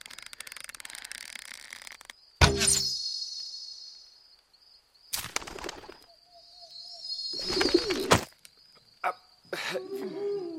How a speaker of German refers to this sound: Seht ihr die Taube dort fast über uns? Ja, ah, sie ist zu weit oben.